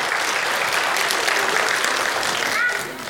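An audience claps steadily for about three seconds, a dense crackling wash of many hands at a fairly loud, even level before it begins to thin out at the end.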